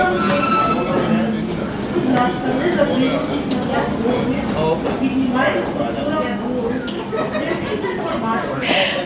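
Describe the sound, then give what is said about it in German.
A train from Prague rolls into track 8 of a station with a steady rumble and faint high-pitched tones, while a crowd on the platform chatters in the background throughout. “Der Zug aus Prag kommt an. Die Türen öffnen sich.”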